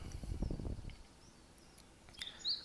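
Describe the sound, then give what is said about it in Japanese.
A Japanese tit gives a few thin, high chirps, sparse, the last one a bit clearer, following a short burst of low rumbling noise at the start. “これが40からでした。”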